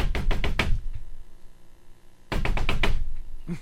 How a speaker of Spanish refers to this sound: Oiga, maestro, llegó un gay y tocó la puerta.